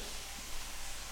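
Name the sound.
water running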